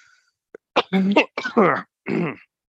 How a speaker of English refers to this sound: Here's some nice coughing for you to enjoy.